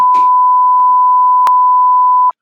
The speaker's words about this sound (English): And I don't, you're going to have to beep this out. I will beep their name out.